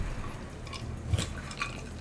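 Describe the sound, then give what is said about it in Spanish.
Quiet drinking from a glass, with a few soft, light clinks of ice cubes and faint liquid sounds over a low background hiss; no one speaks. “Qué ricos suenan los hielos, güey.”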